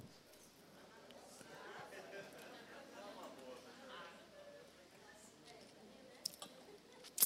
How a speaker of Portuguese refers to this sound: Eu vou até beber água para eu não falar.